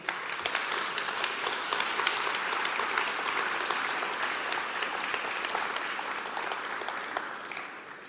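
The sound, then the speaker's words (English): A crowd at a carol service applauds steadily for about eight seconds, a dense, even wash of many hands clapping at once, loud, tapering slightly at the very end. “So I would like one more round of applause for people that have really committed this year.”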